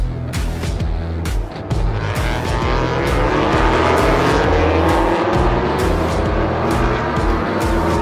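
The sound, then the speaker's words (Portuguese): MotoGP racing motorcycle engines roar loudly and continuously on a race track during a crash, their pitch climbing steadily as they rev, with a few sharp bursts of noise near the start. No one speaks. “O acidente espetacular da MotoGP”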